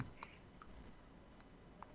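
A handful of soft, scattered clicks and light taps as a keyboard and mouse are shifted around on a crowded desk with a computer, quiet, with low background hiss.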